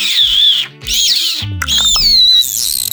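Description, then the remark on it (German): A person imitates an owl with a few fairly loud bursts of high, squeaky, whistle-like hooting, separated by brief pauses. “Oha, das klang ja wirklich wie eine Eule.”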